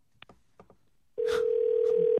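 Faint, brief murmurs come first, then a loud, steady telephone tone sounds for about a second as a call to a guest on Park Myung-soo's Radio Show connects, and cuts off abruptly.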